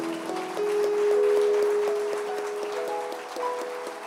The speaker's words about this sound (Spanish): Dele un aplauso fuerte al Señor ahora.